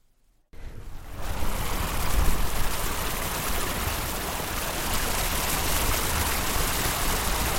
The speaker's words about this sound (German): Ein künstlicher Wasserlauf fließt auf der einen Straßenseite.